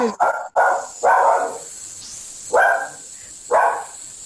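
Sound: dog barking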